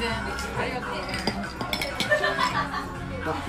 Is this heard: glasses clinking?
yes